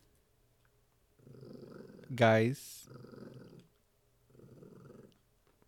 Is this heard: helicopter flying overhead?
no